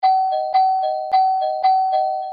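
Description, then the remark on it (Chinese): A doorbell at a front door chimes four times in quick succession, each press giving a bright two-tone ding-dong that rings on, loud, insistent, and evenly spaced, with no voices. “我觉得怪怪的，今天按门铃的方式很明显跟之前不同。”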